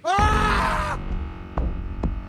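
A man lets out a single loud, strained scream of pain lasting under a second as scalding hot oil pours from a shower in a bathroom, followed by a few faint knocks and thumps in the background.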